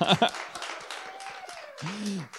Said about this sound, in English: I'm going to let the audience decide. Uh, I will list each person, and please applaud for who you think won this quiz.